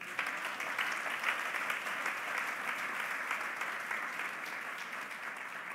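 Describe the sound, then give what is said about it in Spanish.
Sustained applause from a large gathering giving an applause to the Lord, a dense, steady wash of many hands clapping at even loudness for several seconds, with no voices standing out above it. “Cuando dan un aplauso al Señor?”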